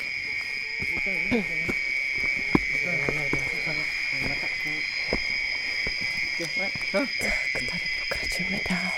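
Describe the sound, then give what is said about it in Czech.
A ten-centimetre mole cricket, which lives in mud, trills in a steady, unbroken high buzz throughout, with an insect chorus around it and soft, indistinct voices murmuring underneath. “Probudila se krtonožka. Deseticentimetrový cvrček, který žije v bahně a má rozšířené nožičky jako krtek.”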